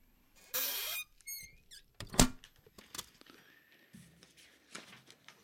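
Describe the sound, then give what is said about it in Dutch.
A squeaky creak from an old box's lid being closed, followed by a short burst of tinkling notes and a few soft knocks. Moderately loud, with no talking. “Nee, zeg, ik, ik wacht even tot het geluidje dichtging.”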